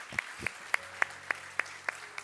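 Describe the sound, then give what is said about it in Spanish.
A church audience claps for the Lord in a steady, even rhythm, about eight sharp claps in quick succession, with a faint low hum underneath and no talking. “Este, le damos un fuerte aplauso al Señor, mis queridos hermanos.”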